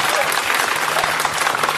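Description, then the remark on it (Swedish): Steady, dense applause from an audience, a broad crackle of many hands clapping at once with a constant loudness throughout and no pauses. “Ge dem en stor applåd.”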